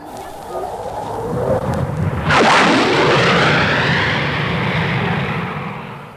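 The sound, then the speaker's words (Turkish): A noisy airplane roars over the garden of a boarding school on a mild May morning, its engine swelling suddenly to a loud, broad rumble with a sweeping, shifting whine as it passes above and slowly begins to fade. “Ara sıra tepeden geçen gürültülü uçaklar dışında koca şehirlerin buğulu uğultusunu anımsatan hemen hiçbir şey yok burada.”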